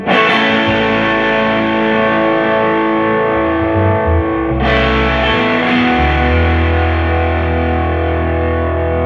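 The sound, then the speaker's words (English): An electric guitar played through a heavily overdriven amp, thick and buzzy with sustained distorted chords and low riffing notes, loud and steady throughout with a fresh chord struck midway. “It, it's got some gain on tap.”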